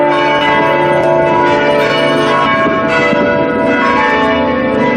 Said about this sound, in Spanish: Que suenen las campanas en tu honor y en, el honor de todos aquellos. En honor de los campaneros de España.